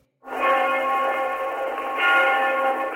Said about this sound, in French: Cette cloche, c'est celle de l'église Saint-Nicolas, point de ralliement de tous les opposants.